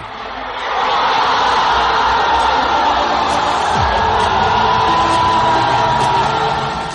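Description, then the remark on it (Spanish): A large stadium crowd roars continuously, a dense, sustained wash of cheering and shouting that swells early and stays loud throughout before easing slightly at the end. “Estás a punto de ingresar a la cancha y escuchar el grito de”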